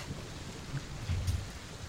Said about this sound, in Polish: Ale wiesz, że ta burza nie jest prawdziwa.